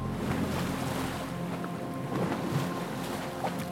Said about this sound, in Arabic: وبعد مضي ساعات وجد كانديا ورفاقه انفسهم في البحر لا سفن انقاذ ولا طعام ولا ماء انهم معزولون تماما وسط الموج والرياح